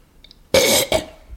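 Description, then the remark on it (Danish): Someone clears their throat in two quick, rough bursts, a longer harsh rasp followed by a shorter one, loud against an otherwise quiet background with no talking. “altså at man skal rømme sig, fordi der kommer, tårerne løber ind af.”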